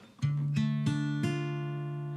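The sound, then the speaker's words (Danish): A minor chord on guitar, its notes plucked one after another in four quick steps, then left ringing together and slowly fading, clear with no talking. “Eller en mol.”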